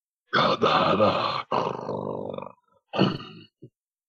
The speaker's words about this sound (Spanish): Pero no, el señor dice que fue una mezcla de, gruñido como con otra cosa. Él entendió como que le había dicho Gadara. El animal emitió este sonido, esta especie de gruñido en el que, en el medio pues del que le dijo Gadara.